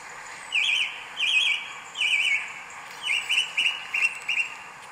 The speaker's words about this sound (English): And sure enough, there it was singing in the trees. So have a listen to it. It is a song thrush.